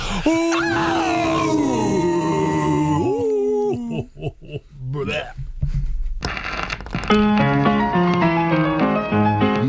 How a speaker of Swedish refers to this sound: Men ska vi göra det lite annorlunda idag? ett doomigt power metal-skrik. Och det kan ju låta hur som helst.